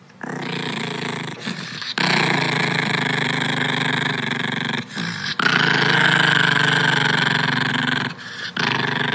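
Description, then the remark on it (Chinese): A Maltese dog named Puchiu (扑啾) growls angrily in long, loud, rough rumbling stretches, broken only by a few brief pauses for breath, with no one talking over it. “然后他是念扑啾，在那个他说扑啾在生气的声音，我们来听一下。它是一只马尔济斯。”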